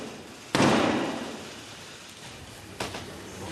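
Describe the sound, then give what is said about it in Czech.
Members of Parliament slam a heavy door shut in the face of the king's messenger, Black Rod: a loud, booming bang that echoes and slowly fades, followed a couple of seconds later by a softer second knock. “Poslanci poslovy před nosem přibouchnou dveře.”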